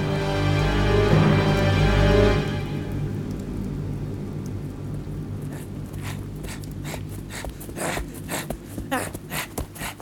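A low, steady droning hum fills the first couple of seconds, then gives way to a continuous hiss of rain on a stormy evening, with scattered sharper spatters and drips, moderately loud, with no voices.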